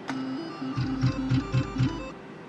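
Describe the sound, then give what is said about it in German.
A sharp click as Start is pressed, then a steady mechanical whirring with a regular series of five rhythmic pulses as slot machine reels spin for a first round at a 10-cent stake, stopping abruptly after about a second and a half with no win. No one speaks. “So, dann würde ich vorschlagen, spiele ich jetzt mal meine erste Runde und dafür drücke ich auf Start.”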